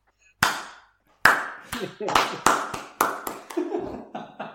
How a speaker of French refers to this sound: tu sais ce que j'ai envie de faire D'applaudir tout doucement. eh, vas-y, faites ça. On accélère, on accélère